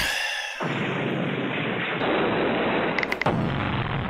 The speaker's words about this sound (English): That's what happened. Even Jitsi said it was noise. it should be. It was explosion.